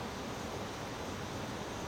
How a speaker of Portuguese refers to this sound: Aqui embaixo tem a cachoeira, aqui no quintal.